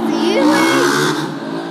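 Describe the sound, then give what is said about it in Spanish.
A car's loud exhaust revs, its throaty engine note climbing and then settling in one continuous burst lasting a couple of seconds. “Ay, cabrón, el escape.”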